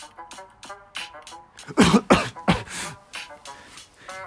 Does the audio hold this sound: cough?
yes